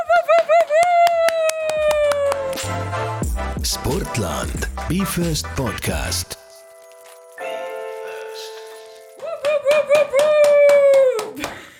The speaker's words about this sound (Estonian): kuule, ma saan aru, et sulle peab ikka päris korraliku aplausi praegu tegema,